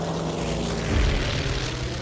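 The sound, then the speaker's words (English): A steady, loud propeller-plane engine drone of a plane flying five agents to the remote desert town of Dera Ghazi Khan, Pakistan, with a low rumbling hum and a brief swell in the lows, continuous, with no voices. “With that, Agent Carter, Agent Garrett, and three others got on a plane to the remote desert town of Dera Ghazi Khan, Pakistan.”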